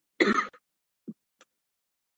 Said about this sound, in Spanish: Perdonad, es que he estado esta semana mal, o sea, con mucha fiebre, mucha tos, lo siento.